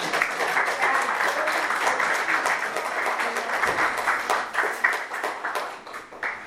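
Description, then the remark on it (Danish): An audience applauds steadily, dense overlapping claps forming a sustained, fairly loud wash of sound that thins slightly toward the end. “Og jeg synes lige, vi skal klappe for Annemette, fordi det er så vidunderligt at være her.”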